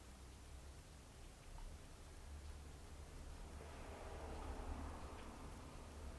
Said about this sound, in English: The rain falls, the rain appears, sounds appear. Rain just is.